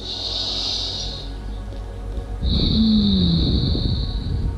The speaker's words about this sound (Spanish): Y si ya observando cómo estoy respirando me doy cuenta que estoy respirando de una forma entrecortada y cortita, invitarme a respirar más profundo. Con solo el gesto de respirar profundo,